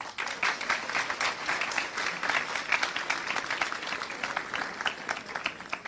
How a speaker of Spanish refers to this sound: Fueron ellas, no fueron los hombres. Mujeres, otro aplauso para ustedes.